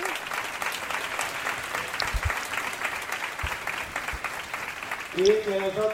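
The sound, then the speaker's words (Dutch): Sustained audience applause for brothers from churches in Rotterdam, The Hague, Amsterdam, Eindhoven, Terneuzen and other countries, a dense steady patter of many hands clapping throughout, with a voice breaking in over it near the end. “Jullie kunnen ook opstaan en een groot applaus aan onze broeders geven.”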